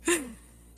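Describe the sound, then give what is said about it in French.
A voice imitates a short, whiny whimper, a single sound that starts sharply and slides downward in pitch before fading into quiet within a second, made by someone whining while washing their hands. “Du coup, je m'exécute, je me lave les mains en, chouinant comme ça.”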